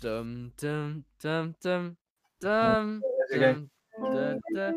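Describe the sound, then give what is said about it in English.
A single voice imitates an acoustic guitar riff with a run of short, punchy sung syllables: four quick notes, a pause, then a longer rising and falling phrase, clear. “You walk into a guitar shop and this kid's playing it.”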